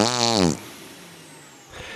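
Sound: fart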